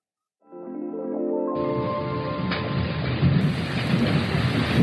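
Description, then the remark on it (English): Torrential rain pours down steadily outside an apartment in Tokyo in a dense, hissing wash, with a deep thunder-like rumble underneath; a brief tonal sound precedes it as the downpour swells in. No one speaks. “That's the sound of rain outside of my apartment here in Tokyo.”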